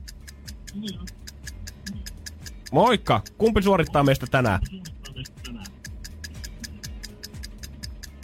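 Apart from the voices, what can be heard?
clock ticking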